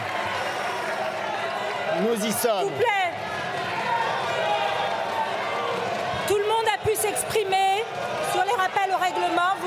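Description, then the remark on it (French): Left-wing parliamentarians boo and shout in a loud, continuous din, with sharp bursts of desk banging breaking through twice, while a few voices try to speak over the uproar. The booing prevents Labour Minister Olivier Dussopt from speaking on the first day of debate. “Les huées des parlementaires de gauche l'en empêchent.”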